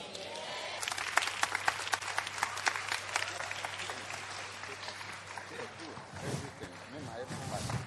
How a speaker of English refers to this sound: Somebody, please put your hands together for the Lord. I think we can do a better hand clap. Let's appreciate.